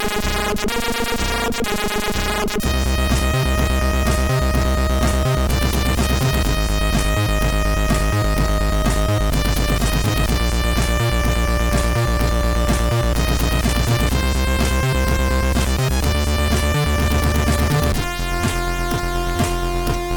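C64 video game soundtrack music plays on its own: buzzy, bright synth tones over a steady pulsing bass beat, loud and continuous, with the texture shifting near the start and end.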